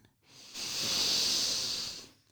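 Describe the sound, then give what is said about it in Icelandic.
A single long, deep inhale taken while tensing the whole body during a relaxation exercise, a steady airy rush of breath that swells and holds for nearly two seconds before fading, heard alone with no talking. “Í þetta skipti skaltu spenna allan líkamann þegar þú andar inn.”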